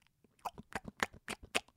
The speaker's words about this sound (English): That's me chewing. I'm blue, blue chew.